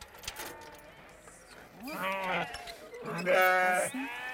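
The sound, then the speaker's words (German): Sheep bleat loudly, two long wavering calls around the middle and end, with more faint bleats of a flock of 150 sheep in the background on a large meadow just outside the city limits. “Wir fahren vor die Stadtgrenze auf eine große Wiese zu Elkes Schafherde.”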